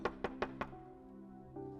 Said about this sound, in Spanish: una persona que toca la puerta.